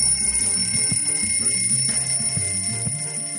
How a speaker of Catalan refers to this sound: Ring, ring, feia el despertador. Ja eren les dotze.